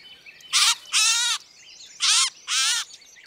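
A catbird being untangled gives four harsh, raspy calls, arriving in two pairs with short pauses between them, loud against a quiet background with no talking.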